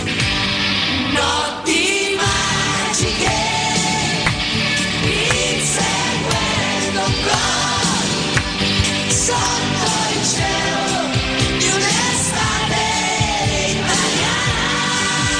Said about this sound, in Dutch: de titelsong van het WK90, gehost door Italië, was het nummer … van uh, eh, … en …